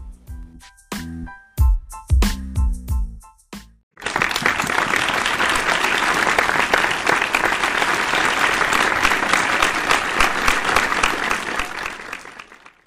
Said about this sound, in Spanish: Por favor, de un caluroso aplauso para el psicólogo beliceño